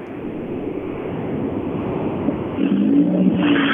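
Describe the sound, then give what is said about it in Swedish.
A tuned rally car of a C-class driver, starting out behind, drives in a forest, its engine droning through a broad, steady rumble, growing slightly louder toward the end as a revving tone rises briefly above the noise. “Utan det är C-förare trimmad som går ut bakom och sen är det vi hör i motorljud.”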